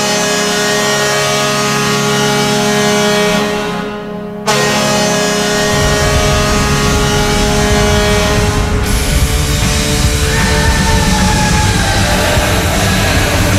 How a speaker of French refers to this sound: matchs du Canadien à Chicago, entendre cette euh, cette sirène qui pourtant tu sais qui souligne que mon équipe vient d'accorder un but, mais pourtant on va se le dire, elle est bonne. On a pratiquement envie de, de l'entendre.